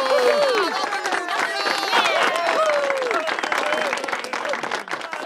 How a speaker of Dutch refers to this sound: In de eetzaal klinkt een groot applaus.